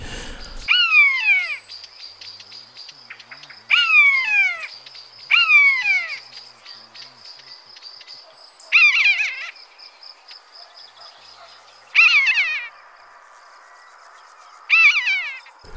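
A Eurasian jay mimics a common buzzard, giving six loud, descending mewing calls at irregular intervals over a steady high insect drone in a quiet forest around midday in summer.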